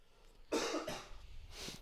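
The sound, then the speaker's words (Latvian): A person who is ill coughs a few times in quick succession, with harsh, breathy bursts, then a softer final cough after a short pause. No talking. “Ja es sāku klepot, ak, Dievs, man ir tik ļoti bail.”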